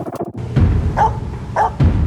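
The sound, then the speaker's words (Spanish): A Pomeranian barks sharply and repeatedly, four or so loud yappy barks following a brief high whine, with a slightly echoey background. “Alex es un perro de la raza pomerania.”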